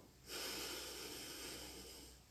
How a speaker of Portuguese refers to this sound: Exercício de respiração pode ajudar a dissipar o medo? Pode. E o exercício de respiração melhor para isso é o que a expiração é mais longa. Então, inspiro